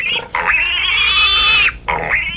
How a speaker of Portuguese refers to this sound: Ué, isso aqui é um porco? E que? Cadê os porquinhos? Cadê os porquinhos? Cadê os porquinhos?